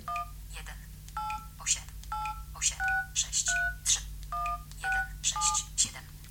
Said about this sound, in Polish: wybrałem teraz numer jednego z moich telefonów i jeśli y, chcemy zadzwonić, naciskam sobie Enter.